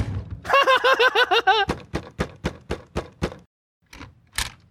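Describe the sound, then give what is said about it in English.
A door creaks open with a wavering, squeaky whine, followed by a quick run of sharp clicking knocks and a final solid thud as it shuts, with no talking. “I'm going to open the door.”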